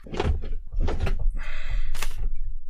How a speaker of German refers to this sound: ich habe hier noch eine Tür offen, weil es ziemlich warm ist, dass ich die vielleicht gleich mal zumache, wenn er jetzt wegfährt, dann hat sich das erledigt.